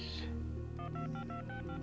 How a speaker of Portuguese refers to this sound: Caramba. Ela digita no telefone só vibrando a mão, né?